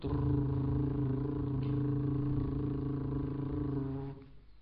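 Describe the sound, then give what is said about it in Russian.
A person imitates a car engine with a steady, low droning hum, holding one even pitch for about four seconds before cutting off abruptly. It is fairly loud, with no other talking. “Допустим, звук мотора.”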